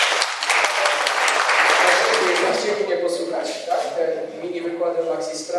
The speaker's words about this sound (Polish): I wam dzisiaj też wielkie brawa, szanowni państwo.